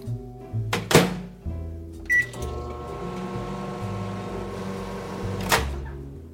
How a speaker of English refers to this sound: So I am going to grab an English muffin from the freezer, give it a partial thaw in the microwave.